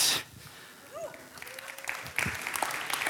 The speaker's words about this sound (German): Da gibt es schon weniger Applaus, merke ich, aber ist okay.